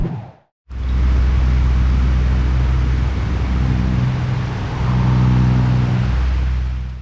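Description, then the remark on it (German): After a brief moment of silence, an electric fan in a studio whirs steadily and loudly during hot weather, a constant airy rush over a low motor hum, with no one talking. “So klingt der Ventilator in unserem Studio.”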